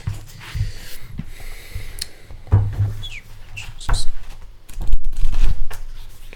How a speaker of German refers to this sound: und wir blättern gerade.